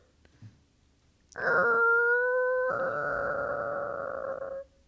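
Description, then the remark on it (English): A voice imitates a creaky door opening with a long, strained, groaning drone of about three seconds, steady in pitch and fairly loud, shifting slightly midway before cutting off. “Ooh, do a creaky door.”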